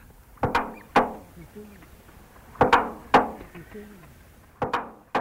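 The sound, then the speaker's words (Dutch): A duck mimics the clattering, door-like knocks of its cage door in quick pairs, with a low, murmuring voice-like mumble underneath imitating its keeper mumbling while singing, between the sharp bangs. “wat je hoort is eh, de deur van zijn hok en de oppasser die aan het mompelen van het zingen is”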